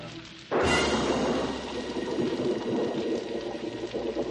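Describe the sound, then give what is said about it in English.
A dense, steady bubbling and hissing starts abruptly after a short quiet moment, like water at a rolling boil, loud, continuing without pause. “He boiled water and mastered the mighty muscles of steam.”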